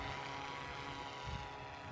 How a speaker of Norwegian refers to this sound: Vi har, vi har brukt denne sommeren her på å prøve uh, ut den dronen her. Uh, det, vi er tre piloter.